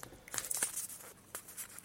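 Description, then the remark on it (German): The paper-sealed back of a microSD card package, not a blister pack, is torn open in a couple of quick, crackly rips with crinkling in between, fairly quiet, with no one speaking. “Das scheint auf der Rückseite mit Papier verschlossen zu sein. Das heißt, ich müsste es eigentlich einfach nur”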